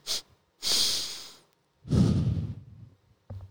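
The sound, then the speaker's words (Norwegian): A person demonstrates a breathing technique with the nose up to the microphone: a short sniff through the nose, then a longer nasal inhale, followed by a relatively short, breathy exhale out through the mouth, with no talking. “Litt kort, litt lenger med nesa, og så ut med munnen.”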